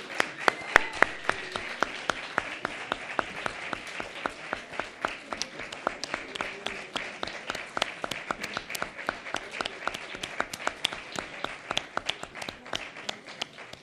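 Steady applause from an audience welcoming a guest who has just arrived, many hands clapping in a dense, continuous patter of sharp claps at a fairly even level for the whole stretch, with faint voices underneath.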